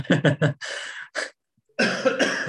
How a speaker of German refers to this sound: Bin ein bisschen erkältet. Äh, also sorry fürs Husten.